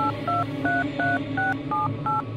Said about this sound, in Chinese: 我马上抓起电话，拨起易文的手机号码。